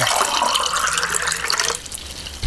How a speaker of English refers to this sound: whatever he's pouring, I need a double.